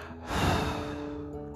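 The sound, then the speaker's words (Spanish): A slow, steady breath pushed out through the mouth after a deep inhale is held during a breathing exercise. It is a soft airy rush that swells after a short pause and then trails off gently, fairly quiet over a faint sustained tonal background. “Y exhala por la boca.”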